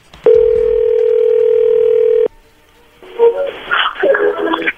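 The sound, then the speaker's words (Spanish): A loud, steady telephone dial tone hums for about two seconds and cuts off abruptly. After a short hush, a busier burst of mixed tones and noise follows, like a number being dialed. “Bueno, le va a llamar el lobo, no haga ruido, por favor”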